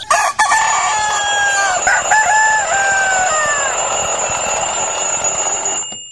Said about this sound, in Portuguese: Cantar do Galo.